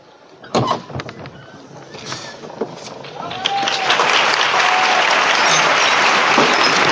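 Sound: crowd applause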